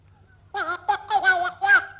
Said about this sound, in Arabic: يا شوف قد ايه طير الاقلاق سبحان الخلاق اسمع يا الاقلاق